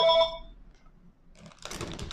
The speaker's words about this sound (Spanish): Teléfono